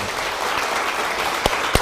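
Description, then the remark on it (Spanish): An audience applauds the Almighty after a prayer, with dense, steady clapping that fills the whole stretch, punctuated near the end by a couple of sharper, louder claps standing out from the wash. “Y dele un fuerte aplauso al Todopoderoso.”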